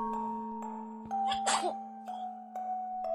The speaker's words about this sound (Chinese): 鲸鱼打了一个喷嚏。